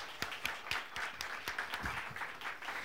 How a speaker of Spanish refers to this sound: Un aplauso al rabino.